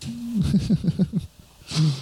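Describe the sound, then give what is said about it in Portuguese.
Exaggerated deep breathing demonstrating a breathing technique: a noisy breath broken into several wheezy, hooting pulses, a brief pause, then another loud voiced breath. No words are spoken. “Eu tenho uma técnica de respiração, ó.”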